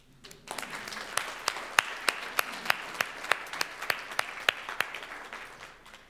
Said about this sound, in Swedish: Hur många här inne var med på Villagatan, föreningen då? Kan inte ni bara ställa er upp? Tack. Tack för er tro, tack för ert arbete. En applåd.